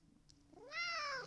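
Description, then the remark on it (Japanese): A single drawn-out meow from Tom, a pet cat sitting on a lap, rising then falling in pitch, fairly loud, with no talking over it. “今実はトムが膝の上に乗ってきたんよトムトムなんかちょっと喋れるトムトム”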